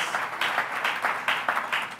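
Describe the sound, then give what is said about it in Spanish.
A church audience applauds together during a worship service, a steady wash of many hands clapping at moderate volume, with faint rhythmic surges throughout and no voices heard. “Vamos a darle un fuerte aplauso a todos aquellos que están en las redes, conectados, en diferentes lugares.”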